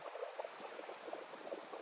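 Steady, gentle wash of sea water along a shore with the sun shining on the sea, a soft continuous churning with small bubbling splashes throughout, fairly quiet and with no voices.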